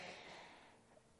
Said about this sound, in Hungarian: egészségedre. Allergia szezon. Még itt is.